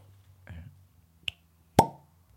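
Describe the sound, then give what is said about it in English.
A cork pops out of an expensive bottle with one sharp, fairly loud pop that rings briefly, preceded by a smaller click and some faint low rustling. “Cheeky pop or not? Let's have a listen.”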